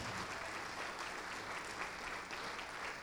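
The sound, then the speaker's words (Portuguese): A crowd applauds steadily as more people come forward, a dense wash of overlapping claps that stays even and sustained throughout, with no single claps standing out and no voices heard. “Vamos aplaudir mais, está chegando mais.”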